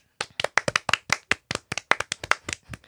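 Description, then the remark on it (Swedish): Quick, sharp hand claps in a steady run of about twenty, fairly loud and uneven in spacing, like a small burst of applause with no one talking. “Applåder!”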